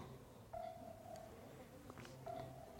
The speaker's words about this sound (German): jetzt hört er wieder dieses Ping-Signal vielleicht. Jetzt wird Tobias gerade angerufen.